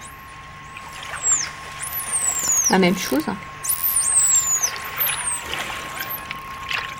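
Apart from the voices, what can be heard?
dolphin signature whistle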